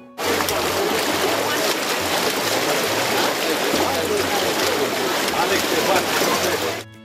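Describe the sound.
A rowing boat, rowed by gendarmes, moves through floodwater, with a steady wash of splashing and rushing water filling the scene. Faint, indistinct voices sit low beneath it.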